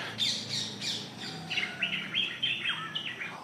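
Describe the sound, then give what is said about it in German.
Several birds in Sri Lanka, including orioles, small bulbuls and small sunbirds, call over one another in quick, bright chirps and whistles, a busy overlapping chorus with no talking. “Ihr hört hier Pirole, ihr hört kleine Bulbuls, wir haben kleine, wir haben kleine Sunbirds.”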